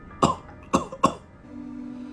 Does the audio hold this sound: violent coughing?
yes